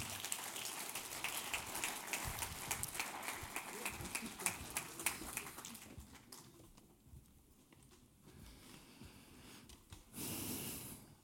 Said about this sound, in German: Geben wir Ihnen einen riesen Applaus auf der Bühne, das Core-Team von ISF Bern.